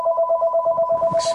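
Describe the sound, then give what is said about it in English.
A telephone rings with a steady, warbling electronic trill, two bright tones pulsing rapidly and evenly throughout, fairly loud, with a faint rustle and brief hiss near the end. “uh, I'm sorry for the phone.”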